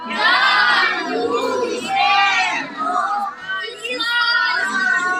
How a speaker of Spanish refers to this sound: les dijo a los niños que agradecieran este gesto, y todos los niños gritaron en alto.